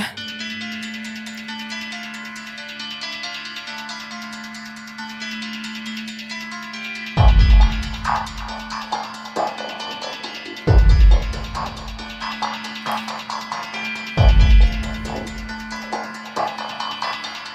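Dark electronic horror score with a sustained droning tone and dense, tense synth textures, punctuated by three heavy booming low hits spaced a few seconds apart. No voices.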